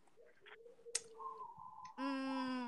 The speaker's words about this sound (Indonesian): No, ada suara. dengarkan burung. Mendengarkan burung ya. Jadi sekarang hostnya burung. Back sound. Back sound. Seperti lagi di hutan ya guys.